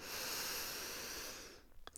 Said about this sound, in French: Asseyez-vous et prenez une profonde respiration. Inspiration profonde